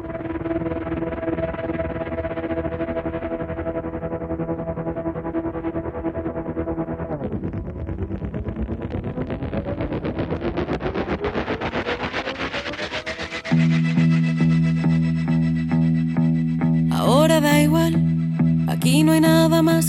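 A band's new single plays loud with no talking, opening on effect-heavy, wavering instruments and a rising sweep, then kicking into dense distorted chords with sharp bright bursts near the end.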